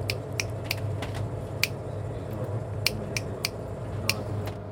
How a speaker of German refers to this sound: Im Mittelmeer machen die Potwale drei Klicks, dann eine Pause und einen letzten Klick. Loro cliccano tre volte e poi hanno una pausa e c'è un altro ultimo click.